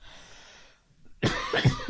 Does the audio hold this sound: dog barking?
no